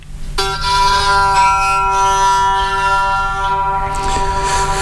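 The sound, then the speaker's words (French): A spinning six-string instrument about 30 cm in size, with six guitar pegs and a central mast, is turned while played with a bow, giving a sustained, rich harmonic tone. It starts abruptly and drones steadily at moderate loudness with a slight wavering, and no voices are heard. “Donc je le fais tourner, j'ai un archer dans la main.”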